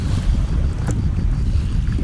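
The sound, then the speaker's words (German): Sea waves slosh and splash against a quay wall in the evening sun, a steady low churning rumble with one sharper slap partway through, with wind buffeting the microphone and no voices. “Beim Platschen der Wellen an die Kehmauer.”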